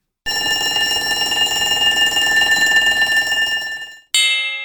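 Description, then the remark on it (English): A school bell rings loudly and continuously for about four seconds, a bright metallic clatter, then stops and gives one more short ring at the end. “A school bell. School bells ring to tell us when activities begin and end.”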